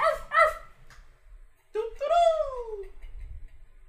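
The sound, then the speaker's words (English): A dog gives a couple of quick, sharp barks, then after a pause lets out a longer yelping cry that slides downward in pitch. The sounds are fairly loud. “Did y'all hear that bark?”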